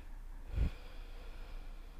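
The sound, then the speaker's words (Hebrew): A single sharp, deep intake of breath, brief, rising out of quiet room tone and fading quickly, with no talking around it. “לקחת נשימה כן, עמוקה.”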